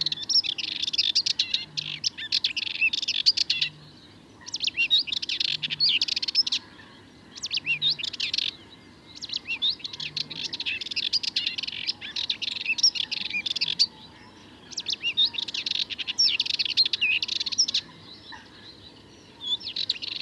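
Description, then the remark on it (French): A Sardinian warbler sings at the Charnier in the Camargue gardoise, in rapid, scratchy, chattering bursts of a few seconds each, separated by short pauses, loud over a quiet outdoor background. “Étant du Charnier en Camargue gardoise, la fauvette mélanocéphale.”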